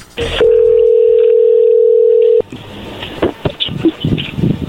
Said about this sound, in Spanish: A ver, ahí se está marcando, no haga ruido, por favor.